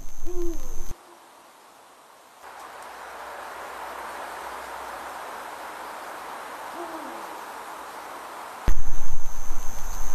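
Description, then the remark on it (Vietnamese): An owl hoots a few times in the night, each call a short, low, wavering note over a steady hiss of nocturnal ambience, with no one speaking. “Một con cú xả xuống bên dưới nên màn đêm như một tấm chăn bao trùm lên tất cả.”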